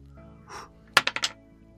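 A die clatters across a hard surface in four quick, sharp knocks that tumble and fade, rolled for a body fear check of difficulty 10 in a game, preceded by a soft rustle and with no one speaking.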